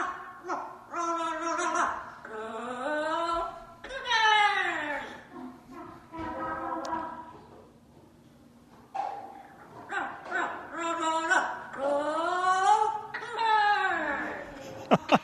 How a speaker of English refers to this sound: Our pet bird guacamole is pretty pumped up about the BYU Cougars this year. Take a listen.